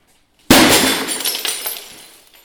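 A sudden, loud smash as an object is struck hard with a baseball bat, bursting into bright shattering and tinkling debris that scatters and fades over about two seconds. No one speaks.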